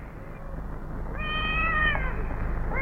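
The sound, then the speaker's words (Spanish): High-pitched meows of kittens: one long, drawn-out mew in the middle, a fainter one before it and another starting at the end, over a steady low background rumble. “Qué lindos gatitos, ¿no?”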